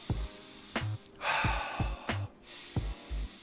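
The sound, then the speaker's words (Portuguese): Quick, heavy panting breaths repeat in a steady rhythm, fairly loud, a person demonstrating breathing after running, with no talking. “Você vai ter que meio que acompanhar o corpo na respiração.”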